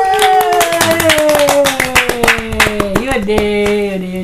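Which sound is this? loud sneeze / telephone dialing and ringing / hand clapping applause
hand clapping applause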